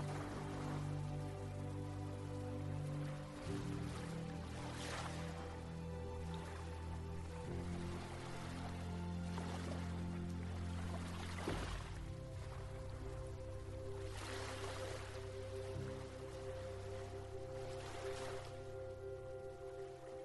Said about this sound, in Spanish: Observa cómo el sonido del agua cada vez es más intenso.